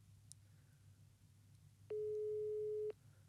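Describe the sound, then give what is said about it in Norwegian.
A single one-second burst of an outgoing call's ringback tone while calling someone's father, a steady mid-pitched beep, sounds clearly over a low background hum, followed by quiet. “Håper han tar telefonen, da.”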